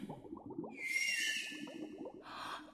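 High, drawn-out whistling calls of a dolphin approaching from the left near a coral reef rise over a steady underwater bubbling and plopping, ending in a brief burst of squeaky chatter.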